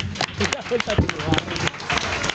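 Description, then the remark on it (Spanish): Steady, dense applause from a crowd runs for a couple of seconds at a fairly loud, even level, with voices and cheers mixed into the clapping, as a participant returns to their place. “Muy bien y te vas con este aplauso que alargamos para acompañarte en tu vuelta a tu lugar.”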